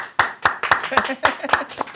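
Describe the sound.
Brief applause heard as steady, rhythmic clapping: about seven sharp, even claps in two seconds, with faint voices murmuring underneath.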